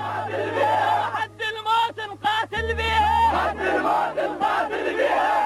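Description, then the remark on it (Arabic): A large group of Iraqi soldiers chants loud, rhythmic slogans in unison in the presence of Saddam Hussein, vowing to fight to the last breath, their massed voices rising and falling in repeated bursts over a low, steady drone, forceful throughout. “هتاف الجنود العراقيين بحضور صدام حسين”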